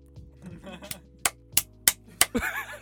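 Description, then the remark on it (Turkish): Someone imitates a seal as a joke: low throaty vocal noises, then five sharp, evenly spaced claps as the person applauds themselves, ending in a loud honking, bark-like cry. “Fok balığı taklidi yaptı bana.”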